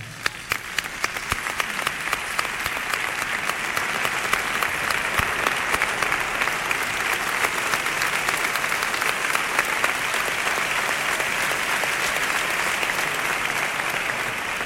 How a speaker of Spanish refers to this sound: yo quiero pedirles un aplauso.